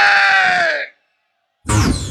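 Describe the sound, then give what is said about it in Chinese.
A crowd at the Ye Weiyang live show lets out loud, drawn-out howls in imitation of wolves, the voices sliding downward in pitch, then breaking off into a brief silence before another rowdy burst of yelling erupts. “狼叫声有没？”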